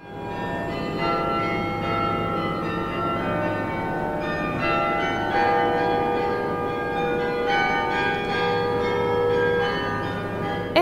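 Carillon bells ring out a bright, steady pop melody, overlapping tones sustaining and blending over a continuous background hum, heard from a moderate distance with no voices.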